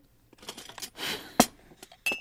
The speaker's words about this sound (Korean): 그 후로 오랫동안 그녀는 말이 없었고, 그릇 달걀거리는 소리만 허공에 맴돌았습니다.